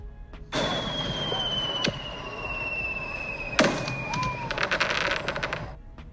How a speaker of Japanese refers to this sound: 会社からの帰り道空に突然花火が上がった